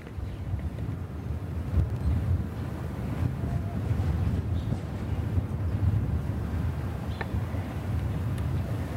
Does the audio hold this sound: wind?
yes